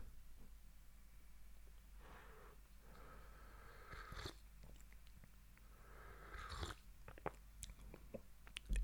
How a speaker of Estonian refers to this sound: nii et ma ütlen uuesti, võtan lonksu veidikene kohvit.